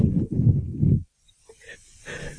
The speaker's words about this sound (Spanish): se te escucha respirar. Ay, sí, es verdad que se me olvida a veces que respiro.